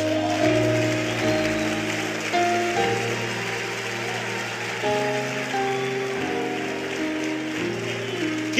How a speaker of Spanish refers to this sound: Un aplauso a Jesús.